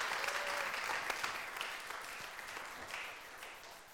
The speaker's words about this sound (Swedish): Tack så mycket. Vi ger dem en stor applåd.